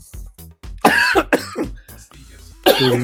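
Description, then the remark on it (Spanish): Someone coughs hard in a string of ragged, uneven bursts, throaty and strained like choking on something that went down the wrong way, with short gasping pauses between. “ah, caray, ya se me fue por otro.”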